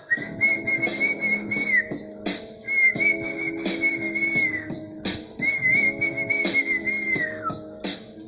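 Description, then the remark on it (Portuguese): A person whistles bird-like songs: repeated high warbling phrases with trills and slides, mimicking birdsong over a soft lower tonal background, moderately loud and with no talking. “Quando menos esperou, quando o sol saiu, as estrelas viraram passarinho de todos os locais, todo tipo de passarinho a cantar.”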